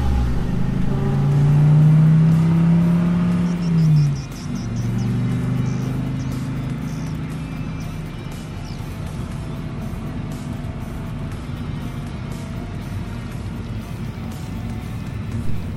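car engine driving

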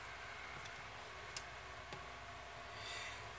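electric fan running

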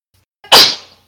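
sneeze

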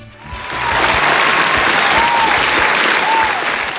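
applause

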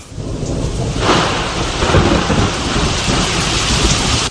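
rain and thunderstorm

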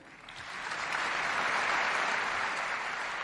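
parliament members applauding

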